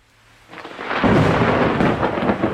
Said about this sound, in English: I was frightened by the thunder.